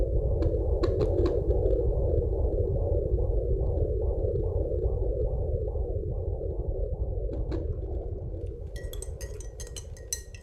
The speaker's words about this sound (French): C'est un son médical, un son de maternité. On était si heureux de l'entendre qu'on a décidé d'acheter un Doppler fœtal pour pouvoir l'écouter tous les jours et surtout pour ne pas l'oublier.